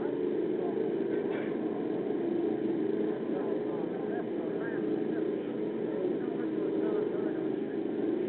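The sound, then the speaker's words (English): An army helicopter that has just landed: its engine and rotors give off a loud, steady roar that fills the whole recording with dense, unbroken noise. “An army helicopter has just landed, making a great deal of noise”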